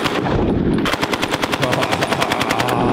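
A machine gun sound effect, a BAR, played from a soundboard: a sustained, rapid burst of evenly spaced loud shots, preceded by a brief rumbling lead-in, with no voices present.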